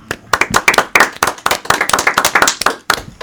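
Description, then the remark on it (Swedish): An audience breaks into applause for guests being welcomed, a dense run of overlapping hand claps with a steady, crackling rhythm that stays fairly loud throughout. “Så jag tycker ni ska få en applåd.”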